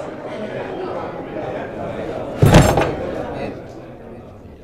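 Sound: door being shut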